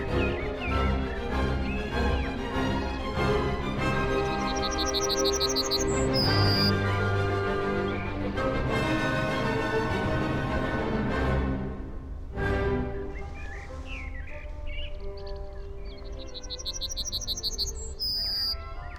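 Short bursts of high, rapid bird chirping cut through loud, continuous orchestral music, appearing twice, once near the start and again near the end, with no one talking.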